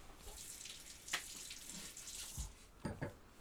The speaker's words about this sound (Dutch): Ik ga even een slokje water drinken.